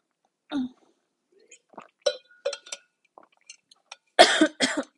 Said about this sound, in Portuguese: Engasguei-me todo. Engasguei-me todo.